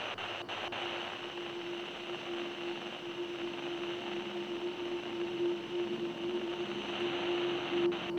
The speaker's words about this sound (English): The walkie talkie crackles. It was one of the three sounds.